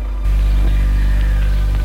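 A car engine kicks in and rumbles steadily, a loud, low-pitched drone that holds for a couple of seconds with no voices.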